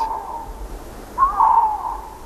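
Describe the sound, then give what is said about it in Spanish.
A male Iberian lynx mating call, recorded at 2 a.m. in a ravine on an estate in the Montes de Toledo: a drawn-out, mid-pitched moaning wail that swells into a louder, wavering cry halfway through, then trails off, with no voices. “Llamada de celo de un lince ibérico.”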